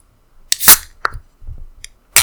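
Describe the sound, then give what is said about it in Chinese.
A red can of Taihu pineapple beer cracks open with a sharp metallic snap and a short fizzy hiss, then a small click, soft handling sounds, and another burst of hiss at the end. No one speaks. “嗯，好，那我来开，因为它是一个那种一开罐的 对，长的一 啤酒 开罐。”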